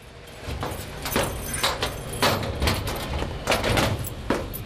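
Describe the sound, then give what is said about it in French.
A heavy iron cabinet holding archive records on victims is worked open, with a series of irregular metallic clanks and rattles over a low background rumble, no voices. “Tout ce que l'on sait sur les victimes est rangé ici, dans une lourde armoire de fer qui sent le vieux papier journal.”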